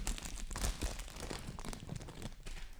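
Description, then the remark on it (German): Loud crinkling of the thin plastic wrapper of a fortune cookie, given as a gift, being handled and pulled open, a continuous crackly rustle with brief sharper crunches, no voices. “Okay, also und es das knistert jetzt ganz laut.”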